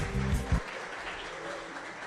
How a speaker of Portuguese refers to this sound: Boa noite, senhoras e senhores. Obrigado. Uma salva de palmas aos dois comediantes que passaram aqui.